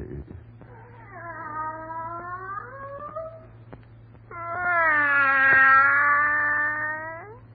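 A cat yowls in two long, drawn-out caterwauls, the second louder and more strained, rising and bending in pitch against a low steady hum, with no one speaking.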